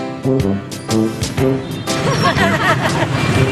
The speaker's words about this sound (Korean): 상인들의 웃음소리와 오토바이 소음이 공존하는 활기찬 베트남을 느낄 수 있는 곳인데요. 점퍼스만 무려 800여 개, 파는 물건도 그만큼 다양합니다.